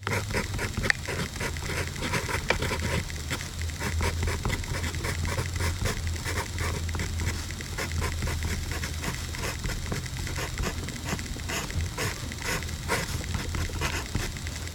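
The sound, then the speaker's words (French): A pencil scratches steadily across paper in quick, rhythmic strokes, continuous for the whole stretch, with a faint low hum underneath and no voices, as a woman writes a mathematical formula whose strokes reproduce the rhythm of a piece of music. “Et c'est le bruit du grattement du crayon sur le papier qui reproduit le rythme du morceau.”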